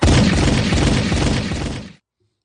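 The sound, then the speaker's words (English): A loud gunshot sound effect: a harsh, full-bodied blast with a crackling, noisy tail that holds for about two seconds before cutting off abruptly. No voices accompany it. “Get the gunshot and the applause ready.”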